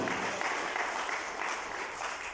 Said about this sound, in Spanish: Dele el aplauso a Cristo, por favor.